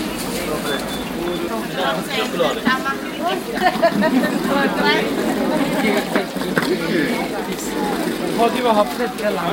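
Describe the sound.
Dense crowd babble fills the Brunnenmarkt street market, with many overlapping voices in several languages including German, and the occasional louder vendor call rising above the steady hubbub.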